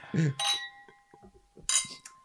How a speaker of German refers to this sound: Darfst du auch mit anstoßen, oh.